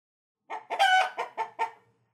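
A chicken clucks in a short run of about five squawky bursts, the second one longer and louder, with no one talking.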